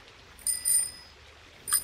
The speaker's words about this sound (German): Plötzlich höre ich hinter mir eine Fahrradklingel